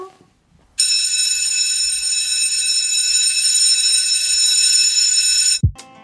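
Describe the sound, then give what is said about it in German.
A loud electric school bell rings continuously for nearly five seconds in one unbroken metallic clang, then cuts off abruptly, followed by a short dull thump. “es klingelt gleich. Wir müssen rein.”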